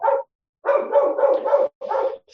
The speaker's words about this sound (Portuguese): A Fiona está começando a latir aqui por causa do cachorro do Salvador.